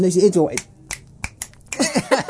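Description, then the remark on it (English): A quick run of crisp finger snaps made as part of a little dance, about five sharp clicks in an uneven flamenco-like rhythm, with voiced vocal sounds just before and after. “There was a little sort of um, flamenco clicky thing that happened then.”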